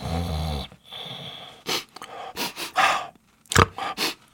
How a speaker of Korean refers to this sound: 그때였습니다. 여태껏 자고 있던 천식이가 눈을 감은 채 코를 킁킁킁 거리더니 말했어요.